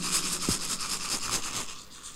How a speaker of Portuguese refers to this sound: Ainda unidos aqui, aqui é tem uns 200 grãos de milho. Muito bonito, eles fazem barulho.